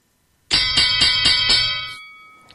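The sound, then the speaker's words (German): A bright bell rings in a quick burst of about six rapid, loud strikes, then its metallic tone hangs and fades away on its own. “Macht nichts, die Klingel ist so schön.”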